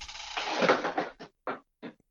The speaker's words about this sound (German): irgendwie reißt eine Katze, glaube ich, alles um.